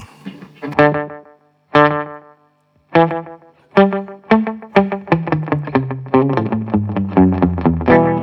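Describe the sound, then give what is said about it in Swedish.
An electric guitar plays alone through a short slapback delay from a Deep Blue Delay pedal: a few separated ringing notes, then a quicker run of overlapping picked notes that blur into each other. “Hur många studsar har du? Typ fyra eller?”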